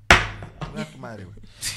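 A hammer strikes a table once with a sharp, loud bang, followed by softer clattering and faint background voices, then another lighter knock at the end.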